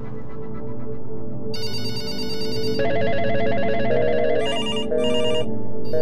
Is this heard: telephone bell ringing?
yes